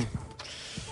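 A paper envelope is torn open, a continuous dry ripping and crackling across about a second, with a couple of soft low thumps from handling and no voices.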